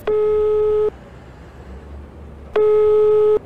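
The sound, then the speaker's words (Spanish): A mobile phone ringback tone sounds twice as a cellphone call is made from the terminal in La Paz on a cold early Monday morning; each steady electronic tone lasts under a second, separated by a long pause over a faint background hum. “llega a la terminal de La Paz e inmediatamente llama por celular”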